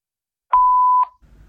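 answering machine tone

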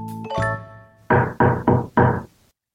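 knocking on a door

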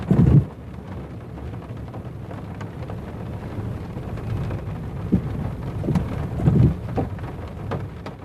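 rain falling

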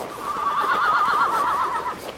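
horse neighing

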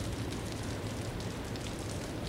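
heavy rain

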